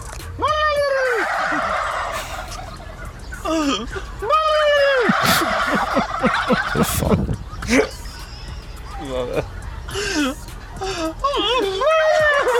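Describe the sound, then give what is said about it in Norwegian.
Men imitate turkey gobbles, and a flock of turkeys answers with loud, rapid warbling gobbles, the calls overlapping in bursts over a steady outdoor background, from the YouTube video "Man gobbles at turkeys, turkeys gobble back". “Og det er da eh, den legendariske YouTube-videoen Man gobbles at turkeys, Ja. turkeys gobble back.”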